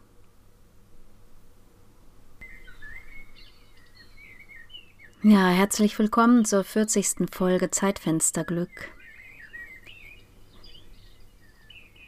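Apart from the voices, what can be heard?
birdsong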